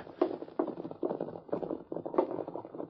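The hooves of a white horse ridden by a kid clop in a steady, even rhythm, a hollow knock roughly every half second, moderately loud, with no voices over them, as the horse comes to a stop.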